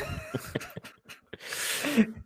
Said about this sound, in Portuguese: uh, olha, olha é a tosse. Está-se a passar.